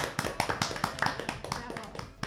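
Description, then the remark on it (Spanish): A small group applauds the panel at the end of a discussion: a quick, uneven run of sharp, crisp hand claps, moderately loud and steady for a couple of seconds. “Aplauso para la mesa.”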